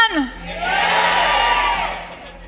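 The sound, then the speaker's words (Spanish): A large audience at a convention in Barcelona roars with shouting and cheering, a broad sustained wall of voices that swells quickly and holds loud for a couple of seconds, with a few higher whoops rising above it. “Eso, ahora sí gritan, ¿verdad?”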